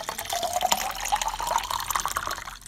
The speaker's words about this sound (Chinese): 我现在出来倒杯水。哎，这样直播的话，听一下